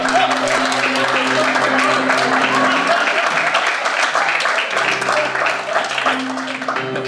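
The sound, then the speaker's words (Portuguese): Sustained applause from a crowd, a dense steady patter of many hands clapping for several seconds, with a low hum of voices running underneath. “Palmas de novo.”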